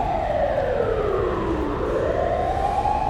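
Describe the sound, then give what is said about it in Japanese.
An ambulance siren in Shibuya wails steadily, its tone sliding down and then back up as it passes by outside, loud and continuous over a rumble of traffic, with no voices. “あのすごいね救急車の音とか皆さん聞こえてますさすが渋谷警察”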